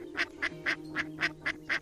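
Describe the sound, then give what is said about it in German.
A duck quacks in a quick, regular series of about seven bright calls, evenly spaced, with no voices and only a faint low hum underneath, as it lands sliding on a frozen ice surface after flapping into the air. “Dabei gackert sie fröhlich, als würde sie lachen.”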